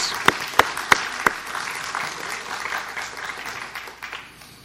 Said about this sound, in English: And I I also want to have a special welcome and a shout out to all the dads that are here today. Let's give a round of applause to all the fathers.